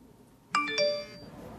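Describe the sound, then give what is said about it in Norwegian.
A short two-note electronic chime, a phone's text message alert for the first SMS received at half past eleven in an interactive children's book, rings out clearly with bright ringing tones that fade within about half a second. No one speaks. “Så det der det er den øh, første SMS man får klokken halv tolv.”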